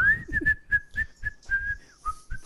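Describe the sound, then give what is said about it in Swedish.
A breathy attempt at whistling by someone who cannot whistle: a thin, wavering tone that keeps breaking into short stuttering notes, each pushed out with an audible puff of air, with no talking. “kan du busvissla? Svar nej, jag kan inte ens vissla.”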